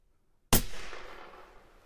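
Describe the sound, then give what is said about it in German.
A single sharp .308 caliber rifle shot cracks out suddenly after a moment of silence, loud, followed by a long echoing rumble that slowly fades away. “So, das war jetzt ein 308 Schuss.”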